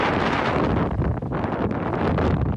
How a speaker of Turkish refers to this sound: Bugünse meteorolojinin en önemli uyarısı lodos fırtınası ile ilgili.